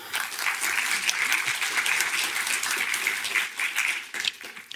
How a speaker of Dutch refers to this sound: Een applaus alstublieft.